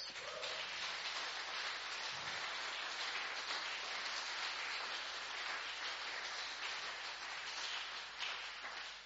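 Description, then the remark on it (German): A crowd applauds the photo team of a parish newsletter, a dense wash of clapping hands that holds at an even level from start to finish, with no voices rising above it. “Äh, unser Fototeam Geben wir ihm mal einen Applaus.”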